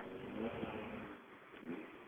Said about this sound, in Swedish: Men med oss här så har vi faktiskt start nummer 17 som fortfarande står här vid tidkontrollen och de får nu igång bilen.